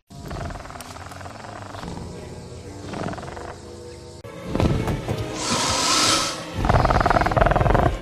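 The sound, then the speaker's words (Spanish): Turtles mating: strained, raspy animal groans and grunts repeat over a noisy background, turning louder and harsher in the second half, with a brief hissing burst. “Eh, son tortugas follando.”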